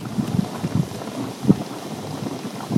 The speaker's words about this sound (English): We had all these boiling, bubbling hot pools to ourselves. This is the sound of the boiling.